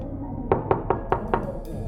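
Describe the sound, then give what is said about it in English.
Five firm knocks on a door in a quick, even rhythm, clear over a low background hum, with no voices, as the Doctor knocks on the door of a room. “As the doctor knocked, there was a sudden and complete silence from the room.”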